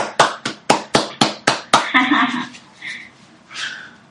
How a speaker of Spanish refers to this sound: También le quiero dar un gran aplauso a la compañera, porque yo sé que ella es la única que nos ha mostrado estas músicas. Un aplauso a la compañera.